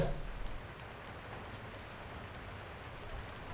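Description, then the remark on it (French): Steady rain falls on a city street in Lyon, a continuous even hiss with scattered droplet patter and faint low rumble, moderately loud, with no voices. “Il pleut sur Lyon.”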